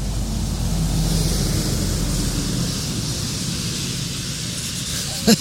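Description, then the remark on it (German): A huge Parador truck with a trailer, carrying parquet flooring, rolls past on a Tuesday evening at 10 pm, a heavy low rumble and broad road roar that is loudest at first, then gradually eases away, with a brief knock near the end. “es ist ein riesiger LKW mit Anhänger von Parador.”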